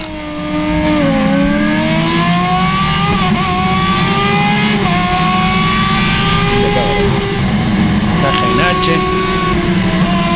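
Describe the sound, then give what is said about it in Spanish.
Loud race car engines roar and rev steadily at a race start on a circuit, pitch climbing and dropping through several gear changes as the cars pull away together; one car has nearly 400 HP and a Foresto engine prepared by Fabián Acuña. “Eh, relación peso-potencia, casi 400 HP, el auto pesa 2 kilos y medio, motor Foresto, preparado por Fabián Acuña.”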